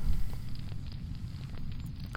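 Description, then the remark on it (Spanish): A steady bonfire crackles with a low roaring rumble, scattered sharp pops and snaps breaking through at irregular moments. No one speaks. “Arrancamos la hoguera para ambientar un poco el ambiente y vamos con ella.”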